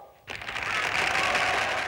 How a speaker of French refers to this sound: Et maintenant, cher public, vous allez pouvoir applaudir la grande révélation de la saison, la belle Otero.